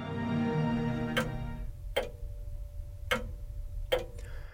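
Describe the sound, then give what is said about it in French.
A mechanical pendulum clock, its pendulum's back-and-forth swing driving a toothed-wheel mechanism, ticks steadily, four crisp clicks about a second apart, clear over a low background hum with no voices. “C'est un peu de la même façon que fonctionnent les horloges mécaniques, en transmettant le mouvement de va-et-vient d'un pendule à un mécanisme de roue dentelée.”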